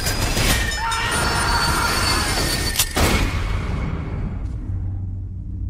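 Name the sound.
train rolling on rails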